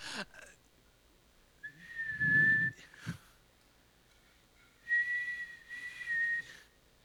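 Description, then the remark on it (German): Two shrill, wavering blasts on a small whistle attached to a life vest, blown by a woman, each lasting about a second or more with a short pause between, fairly loud with breathy air around the tone. “Ähm, da ist, da ist diese, diese Pfeife und sie, sie, sie pustet, sie pustet da rein und so.”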